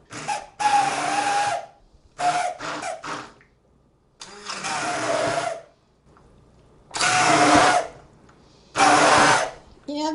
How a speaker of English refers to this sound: I think if you have a regular blender, yeah, actually, you know what? This is good. If you have a stick blender, it seems to work really well and really fast.